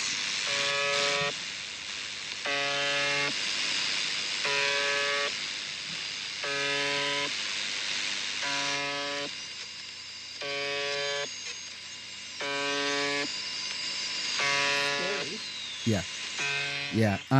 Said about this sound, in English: Hmm, it says the buzzer. Let's see. Oh yes, this is the buzzer. Yeah, uh, this is the crazy noise. Yep.